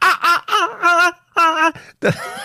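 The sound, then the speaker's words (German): A voice imitates a dolphin with a run of high, wavering squeals and chirps, four or five loud bursts with short gaps between them and no speech. “Was sollte das sein? Das, das ist der Delfin.”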